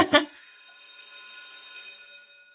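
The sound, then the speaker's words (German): A school bell sounds once with a sharp strike, then its bright metallic tones ring on and slowly fade over about two seconds, with no voices. “Und wenn die Schulklingel wieder klingelt, dann ist es Zeit für unsere Partner, die all das hier ermöglichen.”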